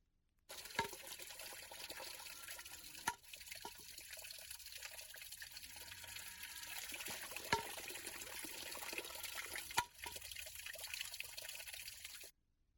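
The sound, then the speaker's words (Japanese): A bamboo shishi-odoshi fountain in a garden, recorded in Zao: water trickles and splashes steadily, broken by a few sharp hollow knocks of bamboo at irregular intervals. No one speaks. “蔵王んで録音した獅子おどしちょっと聞いてみましょう”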